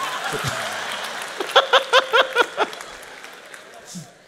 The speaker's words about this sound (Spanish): Fuerte el aplauso primero